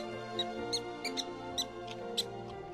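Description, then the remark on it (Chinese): A little mouse in a trash can squeaks repeatedly during the day, six or seven short, high-pitched chirps at an uneven pace, over a steady low humming background. “阿飞听到小老鼠悲伤的叫声后，竟然心生怜悯。”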